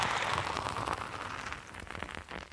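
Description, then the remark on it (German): Someone drinking beer right up against the microphone, with a wet fizzy crackle, then a run of sharp lip smacks and clicks toward the end. No one speaks. “Und immer schön ins Mikrofon schmatzen, das mögen die Leute.”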